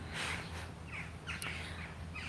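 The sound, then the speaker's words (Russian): Birds call repeatedly in short, harsh bursts in a cemetery, a few overlapping voices over a steady low outdoor rumble with no talking. “Да, птицы очень”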